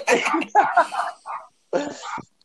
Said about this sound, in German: Der Kommentatorenhund. Ich wollte gerade sagen, jedes Mal, wenn ich was gesagt habe, hat dieser Hund gebellt. Das irritiert mich voll. Hör auf!